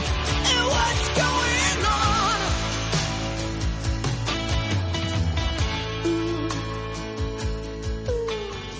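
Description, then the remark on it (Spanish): A loud, full-band rock song with a strong, soaring female voice bending and sustaining notes over steady drums and guitars, playing continuously throughout. “Cuando escuches … de …, sabe que la voz que estás escuchando ahí es todavía la razón de muchas de las canciones que suenan”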